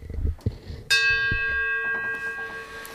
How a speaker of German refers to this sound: Ja, dann äh, läut die Glocke. Ach, können wir das mit der Glocke auch mal überspringen? Äh, das ist immer nur Aufwand.